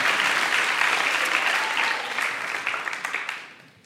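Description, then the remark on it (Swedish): An audience claps steadily in a dense, crackling wash of applause that holds strong for a few seconds, then gradually thins and fades toward the end. “Kan vi ge honom en applåd?”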